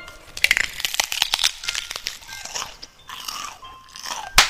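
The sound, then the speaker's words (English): Someone bites and chews into something crunchy, with a run of sharp crackling crunches in an uneven rhythm, followed by softer grinding and one final crisp snap. “Here, kid, take a bite.”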